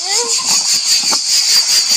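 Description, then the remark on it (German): Loud crickets chirp at a beach in a dense, continuous high-pitched chorus that fills the whole recording, with a brief faint voice-like tone at the very start. “Äh, äh, äh und auch eine laute Grill.”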